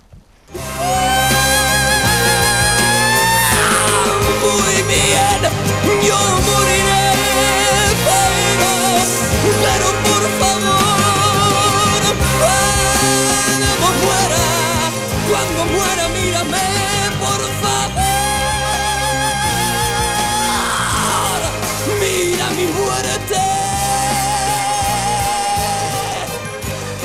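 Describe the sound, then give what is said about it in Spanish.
A recorded rock opera singer belts long, soaring high notes that rise into piercing screams, loud over a full band playing steadily for the entire recording. “me dice Andrés Calvo que tiene el grito, mira.”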